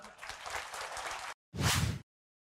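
A crowd applauds with dense, crackling clapping for over a second, cuts off briefly, then a second shorter burst of loud clapping follows before silence.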